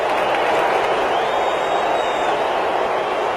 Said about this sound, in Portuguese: O presidente interino da República, Michel Temer, declara abertos os Jogos sob vaias e também alguns aplausos.